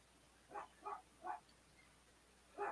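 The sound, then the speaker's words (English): A dog barks three times in quick succession, pauses, then lets out another bark; the barks are fairly faint, with no talking. “And my dog's uh, my dog's not happy about it either.”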